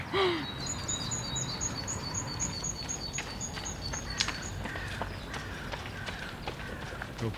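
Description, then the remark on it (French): Outdoors, a wren's rapid, high trilling runs through the first half while harsh crow caws ring out intermittently, all over a steady rustling background of movement and steps. “corneille, troglodyte”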